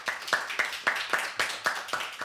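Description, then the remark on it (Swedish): A short burst of applause, with hands clapping in a quick, steady rhythm of about eight or nine sharp claps at a moderate level. No one speaks over it. “Vi ska en applåd för det.”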